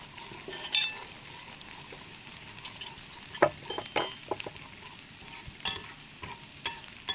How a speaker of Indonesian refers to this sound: Aku sambil nyiapin piring juga ya.